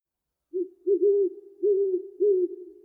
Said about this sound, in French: Le hululement du hibou la fait sursauter.